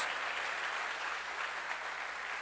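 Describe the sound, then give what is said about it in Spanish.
Sustained applause from a large church audience, given to the Lord: a dense, steady wash of many hands clapping at once with no breaks, holding an even loudness throughout. “Dele fuerte ese aplauso al Señor.”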